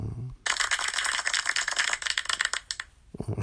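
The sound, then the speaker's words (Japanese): A single person claps pointlessly, just to try it, rapidly for about two and a half seconds, a dense, steady patter of quick, sharp claps that fades out unevenly, with a brief voice just before and after. “ちょっと無駄に拍手してみた。”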